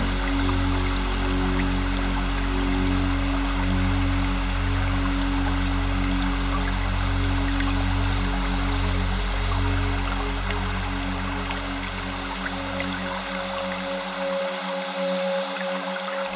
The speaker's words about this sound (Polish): szum małego strumienia ogrzewanego promieniami słońca.